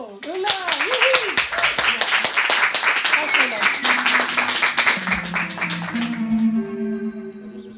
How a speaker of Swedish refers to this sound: Applåd!